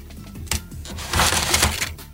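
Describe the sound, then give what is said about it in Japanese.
A quick, crackly tearing rip of release paper being peeled off dust-removal tape by pulling a tab toward oneself in one go, with a sharp snap near the start and a rough, noisy peel that swells and fades over about two seconds. “手前に引くと書かれているこのタブを、はい、手前に引いてくださいこれ一気にガッてガッとはいいっちゃってください”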